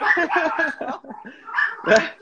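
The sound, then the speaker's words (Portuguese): Several dogs bark and yelp excitedly in quick, overlapping bursts as the woman's husband arrives home, a rapid run of sharp calls followed by a couple of louder, higher yips. “cachorrada latindo agora que meu marido chegou, os cachorros ficam enlouquecidos.”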